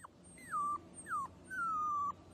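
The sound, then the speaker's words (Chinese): A small dog, pawing at a person's feet and wagging its tail, whimpers three times in high-pitched, thin whines, each sliding downward in pitch, the last one drawn out longest, with no voices over a faint low background hum. “小狗扒着我的脚，摇摇尾巴，好像在替我打气似的。”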